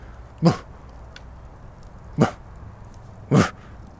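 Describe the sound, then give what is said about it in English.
A person imitates a dog barking with three short, sharp woofs, spaced irregularly, with no other talking around them; it mimics a dog that stared upstairs and barked at nothing. “what the frick are you barking at right now?”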